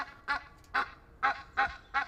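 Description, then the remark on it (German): An Egyptian goose about 70 cm tall honks loudly while puffing itself up to drive off a mallard duck, five harsh, nasal calls in a steady rhythm about half a second apart, with faint low rumbling underneath. “als sich dieser rund 70 cm große Exot laut halsschnatternd vor Emma aufplusterte”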